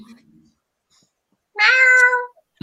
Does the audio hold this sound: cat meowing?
yes